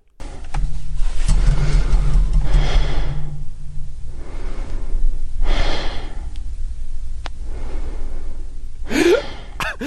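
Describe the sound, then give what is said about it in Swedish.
A man who fell asleep while recording a reading of a book breathes slowly and heavily in deep sleep, with about three loud, rasping breaths a few seconds apart, over a steady low rumble. “Han sover så vansinnigt djupt.”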